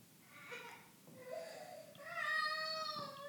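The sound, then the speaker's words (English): A cat cries with plaintive meows, a short call followed by a long, drawn-out wailing meow that rises and holds, not loud, with no talking. “Uh oh, I'm hearing some tears.”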